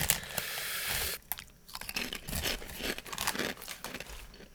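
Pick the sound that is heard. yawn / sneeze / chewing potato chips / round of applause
chewing potato chips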